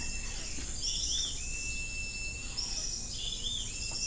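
Distant birds call with brief high chirps in a humid forest, spaced a second or two apart over a steady, faint buzz of insects and soft ambient hum.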